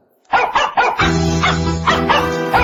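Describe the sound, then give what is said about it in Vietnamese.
A dog barks repeatedly in quick, loud bursts, first on its own and then over sustained background music that enters partway through and continues beneath the barking. “đó vừa tiếng chó sủa vừa tiếng nhạc luôn”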